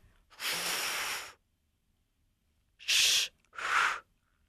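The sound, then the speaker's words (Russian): A woman blows a long, steady breath of air into puffed cheeks. After a pause she makes two short, sharp "sh" hisses with her articulation set correctly. There is no talking. “В первом случае там я дула в щеки, а надо дуть вперед.”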